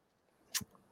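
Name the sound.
sneeze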